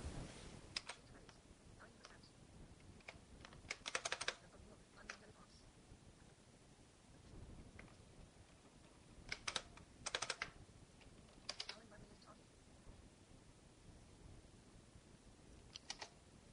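Quiet typing on a computer keyboard while adjusting screen magnification: irregular bursts of sharp key clicks come in short clusters with pauses between, over a soft background hush and no voices.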